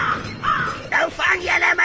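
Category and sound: bird, crow cawing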